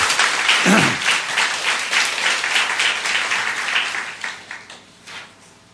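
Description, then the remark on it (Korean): A crowd breaks into sustained applause for God, a dense wash of many hands clapping that stays strong for several seconds before gradually thinning and fading out. “할렐루야 우리 하나님께 큰 박수 올려 돌리십시오”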